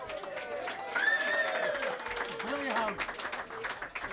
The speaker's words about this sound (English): Give him a round of applause.